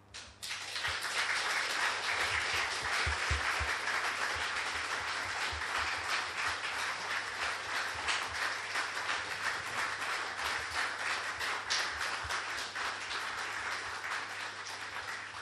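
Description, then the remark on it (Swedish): Sustained applause from an audience for a speaker, for all they had shared, a dense, steady wash of many hands clapping that carries on at full strength for around fifteen seconds with no voices standing out. “Och den applåden var inte för att det var slut utan för allt du har delat med dig om, som det kanske var i Eksjö.”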